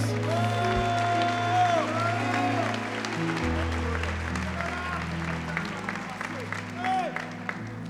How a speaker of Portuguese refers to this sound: Dê um brado a Ele e aplauda mais uma vez.